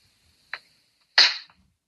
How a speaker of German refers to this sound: Darf ich nochmal klatschen kurz?